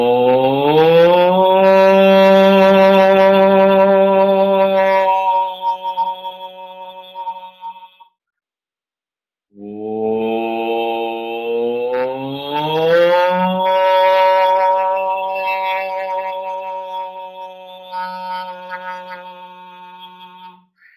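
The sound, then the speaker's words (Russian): A voice sings a long, loud sustained "oh" vowel that slowly glides in pitch, breaks off briefly, then resumes with another drawn-out tone rising and falling, clear with no talking. It is a vocal exercise in which the pitch shifts as the singer moves attention from chest to head to feet. “А, то есть во время звучания я перемещаю внимание, вместе с моим вниманием перемещается высота тона.”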